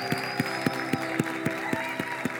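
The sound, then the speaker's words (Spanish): An audience claps in unison at a steady, brisk beat, about nine sharp claps in a couple of seconds, over a sustained musical drone and a faint crowd murmur, as people who raised their hands to commit to God walk forward. “Vamos, sigan aplaudiendo mientras van pasando.”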